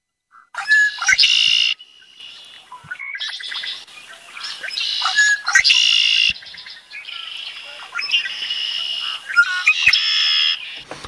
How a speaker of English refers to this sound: And I remember him saying, the red winged blackbird is a harbinger of spring. And I always liked that. So uh, let's see if I can find it here. All right, here's the red winged blackbird.